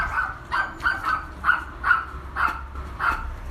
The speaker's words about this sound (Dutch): Je hoort hier de goede waakhond.